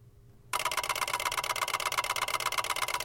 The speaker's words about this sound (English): Whoa, haven't heard that one in a while. What is that? Pulse beacon relay receptor, basically one way space fax. Looks like something's coming down the pipeline from our friends over at Canaveral.